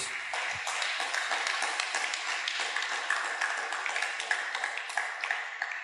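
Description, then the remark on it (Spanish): An audience claps loudly in praise of God, a dense, steady wash of many hands with sharp overlapping slaps that keeps up evenly for several seconds with no talking over it. “¿Cuántos pueden dar fuertes palmas a ese Dios?”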